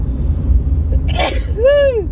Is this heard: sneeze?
yes